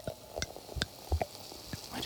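A wine cork slowly eased from a bottle by turning the bottle rather than the cork, ending in a soft, muffled sigh rather than a pop, amid faint handling clicks and rustles.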